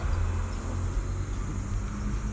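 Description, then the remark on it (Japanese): A steady low rumble of car traffic on a national road right in front, heard outdoors, continuous and fairly loud without distinct pass-bys, with no one speaking. “ただちょっと国道が目の前にあるのでそういう意味では車の音が気になるかなっていうぐらいで”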